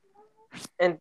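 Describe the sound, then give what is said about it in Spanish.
A cat meows, two short, loud, raspy calls in quick succession, after a faint, thin tonal whine at the start. No one talks over it. “déjale abro el gato.”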